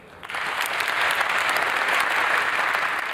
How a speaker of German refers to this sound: Tosender Applaus beendet die zweiwöchige Konferenz. Al-Jaber wünscht den tausenden Vertretern der Länder und Presse eine gute Heimreise.